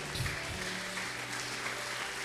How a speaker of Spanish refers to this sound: ¿Alguien le pone una ofrenda de palmas al rey en esta mañana?